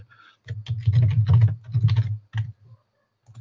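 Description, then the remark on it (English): Fairly loud typing on a computer keyboard while posting a link on the KISS FAQ, working on two computers with two keyboards: quick clattering bursts of keystrokes separated by short pauses, trailing off into a few scattered taps at the end. “I'm trying to do two computers, two keyboards.”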